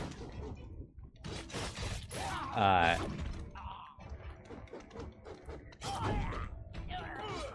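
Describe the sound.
A chair creaks and groans in a few drawn-out bursts as someone leans forward, fairly loud, with scraping mechanical squeaks; someone briefly murmurs in between.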